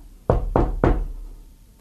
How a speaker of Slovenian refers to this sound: Med drevesi je stala hišica in iz dimnika se je prav prijazno kadilo. Potepuh je potrkal na vrata